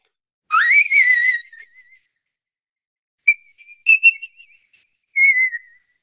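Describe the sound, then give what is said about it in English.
A high, piercing whistle-register singing voice, the upper register of a multi-register voice, in three short bursts: a rising, wavering note, then a fluttering phrase, then a brief descending tone, clear with silence between. “And then if I count as well the upper piercing register of the whistling voice”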